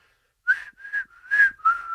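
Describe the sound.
A person whistles a short four-note jingle imitating the P.C. Richard & Son strikeout jingle heard at Yankee Stadium, each note held briefly with a slight upward slide, clear with no talking.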